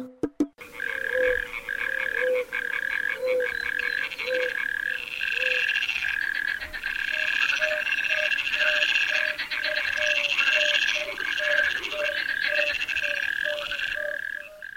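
A chorus of frogs croaks steadily, with rapid, regular pulsing calls layered over one another, loud, continuing without pause and with no voices.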